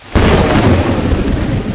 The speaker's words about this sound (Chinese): 惊雷炸耳。轰鸣如天神怒吼